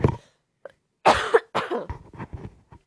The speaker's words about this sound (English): Um, excuse me, I'm going to cough.